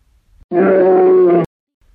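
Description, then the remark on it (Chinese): A bear gives one loud, sustained roar before going to sleep, lasting about a second, steady and deep with a rough, growling edge, then cuts off abruptly into quiet. “熊嚎叫完，会顺手折断一根树枝，带回房间。”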